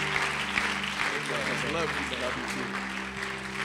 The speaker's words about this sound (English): Could you receive him with a great hand clap of appreciation as he comes?